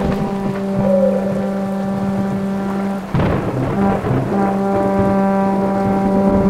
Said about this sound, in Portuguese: Era uma noite chuvosa, fria e silenciosa na floresta de Elven quando repentinamente um som aterrorizante cortou o silêncio e cornetas soaram no meio da escuridão.